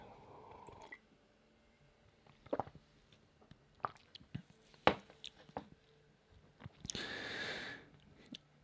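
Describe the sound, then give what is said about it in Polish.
Someone quietly sips coffee: soft wet slurps, swallows and small mouth clicks scattered through a near-silent pause, ending with a longer breathy sip. No one speaks. “Kolejny łyk kawy będziemy tutaj, jak skończę, to myślę, że skończę do połowy prezentacji.”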